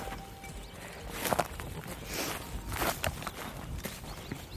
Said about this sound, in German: Eine Herde von 150 Toggenburger Milchziegen ist unterwegs auf die Heide in Brandenburg. In einer langen Reihe trippeln sie hintereinander her.